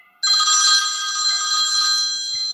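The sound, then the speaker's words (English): A telephone rings loudly and steadily for over two seconds, a bright, buzzing electronic bell tone with no voices over it. “He has the phone ringing.”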